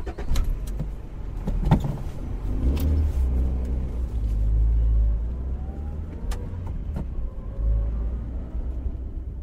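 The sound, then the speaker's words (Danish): A car drives toward a new fishing spot with a steady low engine rumble and road noise, rising briefly as it accelerates, with a few faint clicks and rattles from inside the cabin. “Så de pakker deres ting sammen, sætter sig ind i bilen og kører mod det nye fiskested.”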